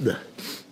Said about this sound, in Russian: Будьте здоровы, Спасибо, да.